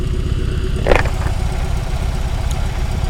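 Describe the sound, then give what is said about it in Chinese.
A boxer (horizontally opposed twin-cylinder) motorcycle engine on a stationary bike runs with a steady low, pulsing throb. It rises in one brief throttle rev burst near the start that makes the bike rock side to side, then settles back to a rough idle. No voices are heard. “我现在静止哦，我左右我都没有做任何事情哦，我没有摇晃哦，但我吹油门，它会晃哎。对，因为水平多双缸引擎，Boxer。”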